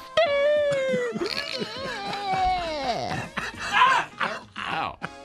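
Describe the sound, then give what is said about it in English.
A human voice imitates a French rooster crowing, a long wavering call that swoops and falls, followed by a few shorter strained vocal bursts, loud. “it is the sound of the French rooster.”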